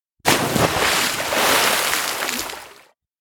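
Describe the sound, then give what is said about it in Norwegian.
Ice cracks and breaks with a crackling sound like cardboard being crushed, then a loud burst of splashing water lasts a few seconds, rough with scattered sharp snaps in the churn, then cuts off abruptly. No one speaks. “Men så er det denne knekkende, sprekkende lyden, denne lyden av nærmest som du klemmer sammen papp, og plutselig høres en annen, tydeligere lyd. Så et plask, og flere plask.”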